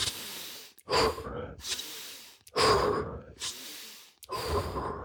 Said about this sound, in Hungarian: Ugye ez a fajta erőteljes légzés, különösen a brásztika pránájában. A brásztika pránájában azt jelenti, hogy erőlégzés, és így hangzik valahogy